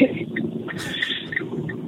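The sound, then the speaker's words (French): Steady, muffled rumble of a car cabin on the move, a continuous low road-and-engine drone with faint voice-like murmurs mixed in, sounding narrow and phone-like. “Est-ce que tu m'entends Parce que je suis en voiture et du coup, si jamais c'est galère, je m'arrête et, si ah, ça passe pas bien, tu me dis.”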